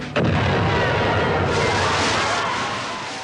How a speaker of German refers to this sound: Kurz nach 21 Uhr trifft ein erster Torpedo, abgefeuert vom sowjetischen U-Boot S-13, die Gustloff. Zwei weitere Detonationen folgen innerhalb kurzer Zeit mit verheerenden Folgen.